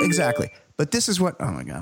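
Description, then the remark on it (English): A bright electronic chime from a phone hooked into the sound board rings out with sustained tones at the start, overlapping a person talking, then fades as the speech continues with an exclamation. “Oh my God, that's my phone.”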